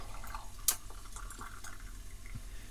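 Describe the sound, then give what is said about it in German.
Freshly boiled hot water pours steadily into a pan, a continuous splashing, gurgling stream with one sharp clink near the start, moderately loud, with no talking. “Und jetzt kommt das frisch aufgebrühte Wasser hier rein.”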